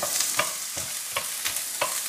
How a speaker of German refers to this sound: Gut, wir werden jetzt einmal eine Zwiebel da herinnen anbraten.